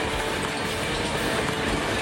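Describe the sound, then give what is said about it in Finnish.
An accelerating train rolls steadily along the rails toward a rail yard's entry switch, coming from a side track onto the main line: a dense, continuous rumble and rattle filling the scene, with no voices present. “Kiihtyvä juna etenee kohti ratapihan tulovaihdetta, saapuen sivuavalta raiteelta kohti linjaa”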